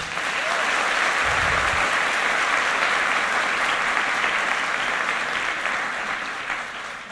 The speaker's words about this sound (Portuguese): Muito obrigado. Salva de palmas para eles, gente.